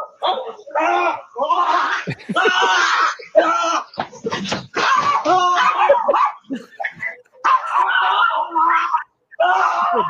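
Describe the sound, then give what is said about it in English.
A Jack Russell terrier barks and yips frantically in rapid, loud, nearly nonstop bursts, with excited human voices mixed in throughout. “Jack Russell terrorizing.”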